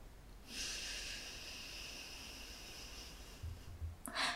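A breathy nasal airflow stretches for nearly three seconds, like a slow drawn-out exhale through the nose, followed by a brief sharper sniff at the end, as a person practises a breathing technique of two inhales followed by one long exhale. No talking.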